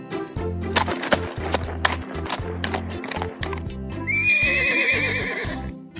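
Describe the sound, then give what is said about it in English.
Steady hooves clip-clop in a quick rhythm as a prince rides into the forest, then a horse lets out a loud, high, quavering neigh over the continuing hoofbeats. “One day, a prince rides into the forest.”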